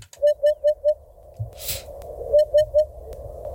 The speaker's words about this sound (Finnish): Harjalintu kuulostaa tältä.